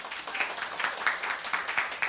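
A short burst of steady applause from a small group, many hands clapping in a dense, bright patter with a few sharper claps standing out, and no talking over it.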